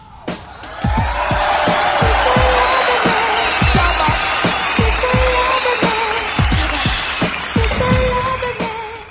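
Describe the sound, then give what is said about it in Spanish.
A crowd claps and cheers loudly and steadily for several seconds, with sharp thumps and hoots scattered through a dense wash of applause, easing slightly at the end. “Fuerte el aplauso para Paulita Guzmán.”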